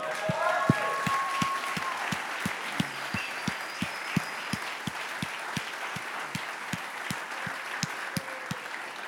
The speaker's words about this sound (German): Ja, gib mir einen Applaus fürs Setup-Team, hey, come on.